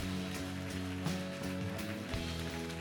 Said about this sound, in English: Come on, can we clap for those five, five people or so? Come on. Come on.